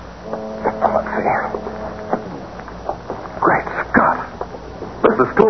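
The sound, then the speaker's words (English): A police boat's motorboat engine drones steadily in a low, humming tone as it approaches, joined by intermittent splashing, rushing bursts of water that swell and fade over several seconds. “Boat coming, Mr.”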